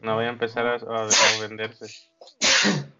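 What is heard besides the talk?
sneeze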